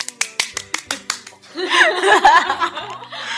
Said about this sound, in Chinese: 此处应该有掌声了，同志们。